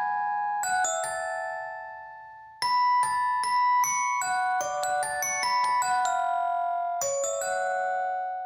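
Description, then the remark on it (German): Bright glockenspiel notes ring out in a melodic run within a song, struck one after another with clear bell-like tones and lingering decay, loud, with a brief pause before the melody resumes. “Und beide haben dieses präsente Glockenspiel.”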